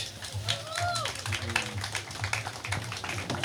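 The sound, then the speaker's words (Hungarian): A crowd at a Beat radio audience meet-up at the Strand Festival applauds to welcome a band's members, with a steady patter of many hands clapping, continuous throughout, with a few whistles and indistinct voices rising over the clapping. “Beat a fesztiválok rádiója, közönség találkozó Hello Strand Fesztiváli és üdvözöljétek meg, egy nagy tapsot kérünk szépen”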